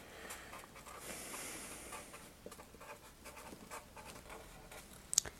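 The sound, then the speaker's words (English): Quiet scratching of someone writing a sentence on a board, with irregular short strokes and pauses over several seconds, ending in a sharper tap. No one speaks. “Um, I want you to write a sentence for me.”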